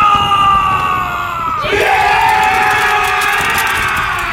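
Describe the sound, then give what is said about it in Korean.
A crowd of North Korean People's Army soldiers shouts and cheers together as their captain raises his rifle after retaking a hill during the Korean War, a loud, sustained roar of many voices that swells sharply about midway and stays dense until the end. “소총을 들어올리자 곧 인민군이 소리를 지르며 환호했다.”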